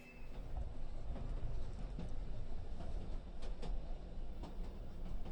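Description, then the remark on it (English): A steady low rumble of train noise at a station fills the air, with rows of modern trains going to London and Edinburgh and one bound for Hathersage, and scattered metallic clicks and clanks over a busy, continuous background. “We pass rows and rows of modern trains, going to London and Edinburgh, and packing to ours destined for Hathersage.”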